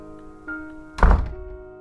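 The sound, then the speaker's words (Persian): A door opens with a soft click, then swings shut with a single heavy thump that quickly fades, leaving a faint steady hum in an otherwise quiet living room. “صدای باز و بسته شدن در فضای اتاق نشیمن رو عوض کرد”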